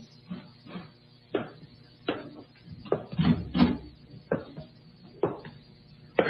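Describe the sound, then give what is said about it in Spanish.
An unbolted door is opened, with a series of hollow wooden clunks and rattles spaced through the moment, fairly loud with no one speaking. “Entra, tío. La puerta está sin pasador.”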